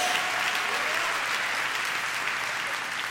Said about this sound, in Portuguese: Pode dar uma salva de palmas ao Senhor?